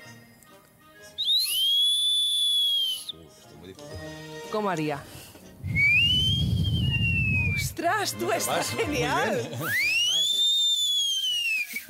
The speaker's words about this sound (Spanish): O oh, mira, vamos a probar con otro objeto, ¿vale? Este es un silbato.